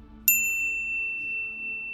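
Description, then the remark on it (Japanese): A single bright chime strikes sharply and rings on as a clear sustained tone over a quiet low hum, a mobile phone notification alert, with no voices. “相馬は黒田のこの問いにどう答えようか思案したその時である相馬の携帯に通知が入った”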